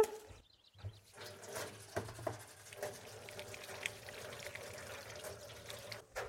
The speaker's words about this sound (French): Je me lave tout de suite les mains comme d'habitude.